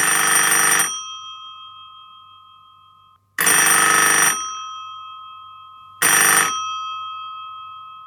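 A telephone rings three times as a listener calls in to share a Bible verse, each loud metallic burst lasting about a second and leaving a fading bright tone before the next, evenly spaced with no one speaking.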